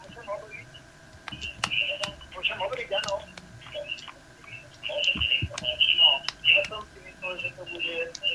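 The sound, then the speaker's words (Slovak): Thin, tinny telephone-line audio from a radio call-in listener carries overlapping voices, with the radio broadcast, which the caller is listening to on the radio, echoing back a moment late so the speech doubles over itself in a muddled, continuous jumble. “Počúvať nás len cez telefón, lebo tam budete mať túto ozvenu.”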